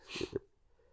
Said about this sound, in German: Ja, Gesundheit.